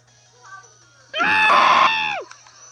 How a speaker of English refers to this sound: Sorry, I just had to end her scream.